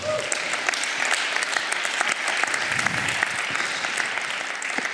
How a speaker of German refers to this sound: Ihr habt echt tolle, tolle Location oder, oder pa Pastoren hier. Mal einen Applaus für euch beide.